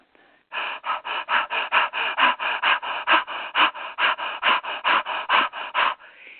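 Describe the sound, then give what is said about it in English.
A demonstration of rapid, forceful fire-in-the-belly diaphragmatic breathing: a steady run of about two dozen sharp, panting breaths through the nose, drawn down into the stomach, loud, pumping at roughly four per second with no talking. “I'm going to demonstrate a fire in the belly breath”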